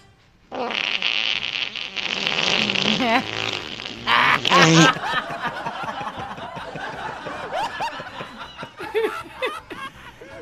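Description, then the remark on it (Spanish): A loud, drawn-out raspy fart lasting a few seconds, let out as a man walks into an empty shop, recorded in an audio message, followed by a shorter burst, then people snickering, laughing and chattering. “Y ándale, que al volver, como estaba la tienda sola y todo, al entrar se escuchó un gasesotote.”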